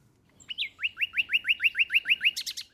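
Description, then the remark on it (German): A male nightingale sings clear in a hedge in a dark garden on a spring evening: a rapid, evenly spaced run of about ten loud, ringing whistled notes, ending in a burst of sharp, higher trills, with no talking. “In der Hecke geben die Nachtigallenmännchen alles im Sangeswettstreit um die Weibchen, denn die wollen Virtuosen.”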